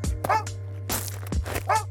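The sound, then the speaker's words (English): A dog barks several times in quick, uneven succession, each bark short and sharp, over a steady low electrical hum. “An alternative option to show active presence at home is by making your own audio, something that plays ambient noises randomly throughout the day, with footsteps, conversations, and a dog barking.”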